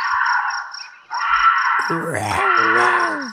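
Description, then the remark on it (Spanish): A bobcat screams, recorded by a hunter, in a loud, drawn-out, high-pitched wail with wavering rises and falls, sounding eerily like a woman shrieking, over a steady background hiss. “Muchas veces se escucha casi como una mujer gritando.”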